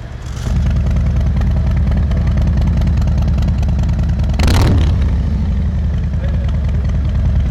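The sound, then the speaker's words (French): A motorcycle with a 114 engine and only silencers fitted, its exhaust valves opened with a handlebar button, rumbles steadily at idle with a deep, loud exhaust note, a brief sharp burst of noise around the middle, then the throaty lumpy idle continues. “sur le bruit d'origine de la moto, les valves des échappements sont fermées. Je vais appuyer sur le petit bouton au guidon, les valves vont s'ouvrir.”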